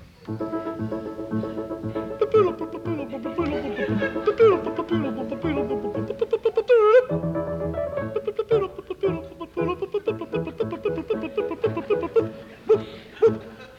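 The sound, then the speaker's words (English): Voices imitate the opening of an opera overture, humming and scatting a brisk, rhythmic orchestral melody with rising and falling lines and punchy accents, steady and fairly loud throughout. “and this is the overture.”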